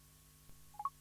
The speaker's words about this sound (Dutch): Als we dan het toetsenbord gebruiken zonder onze iPhone, want dat moet, onze iPhone kan gewoon in onze zak blijven zitten, dan druk je gewoon op nummertje 8, op B8.